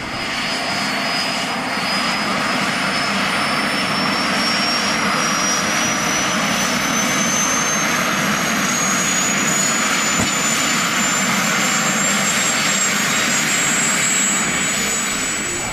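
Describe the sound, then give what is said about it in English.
The jet engine of a land speed record car roars steadily and loudly as it is started with an air start, a high whining tone slowly rising in pitch over a dense, continuous rumble with no pauses; the car faces into the wind. “got the engine to work, started, first thing came up with an alert for”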